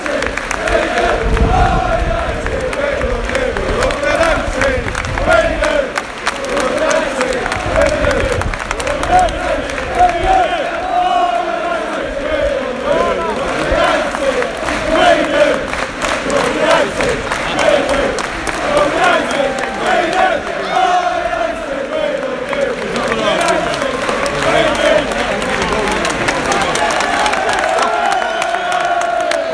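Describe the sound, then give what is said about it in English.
A large football stadium crowd of United away fans cheers and chants continuously as the United players come over to the away end after a win, a dense roar of many voices with rising shouts and whoops, loud and sustained throughout with scattered clapping. “Still in the ground, as you can probably hear. United players are just coming over to the away and now.”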